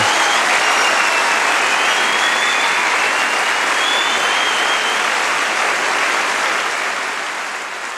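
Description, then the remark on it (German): Loud, sustained applause from a sizable crowd, played in as applause for a care worker, dense clapping filling the whole stretch and tapering off slightly near the end, with no voices standing out. “Ich glaube, wir können hier einen Schlusspunkt machen und wir müssen hier wirklich einmal noch einen Applaus für die Pflegekraft äh, einspielen.”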